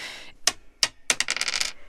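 Dice for a board game clatter onto a hard surface: two sharp clicks, then a quick rattling burst of bounces that settles. Crisp and fairly loud, with no voices.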